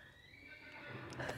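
A horse whinnies, one drawn-out call with a wavering, harmonic tone that grows slightly louder and breathier toward the end, with no voices alongside.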